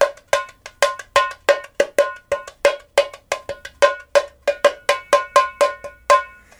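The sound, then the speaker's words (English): A small Brazilian repique drum struck in a fast, steady run of about two dozen sharp, ringing hits, loud, with no talking. “This is a little drum that a friend of mine gave to me in Rio de Janeiro.”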